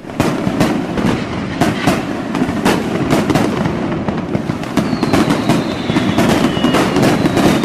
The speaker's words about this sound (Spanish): Ahí está, ahí está. Desde Tultepec vienen a tirar sus cohetes, su dinamita.